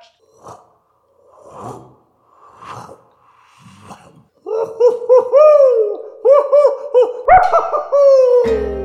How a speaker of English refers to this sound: That's a maniacal owl. Yeah, I was like, that sounds like an owl slash witch coming through a wind tunnel.